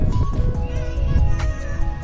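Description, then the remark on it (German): A horse whinnies over a rumbling, dense low background while hooves clop unevenly, fairly loud, with no one speaking. “und mit ihrem Pferd floh.”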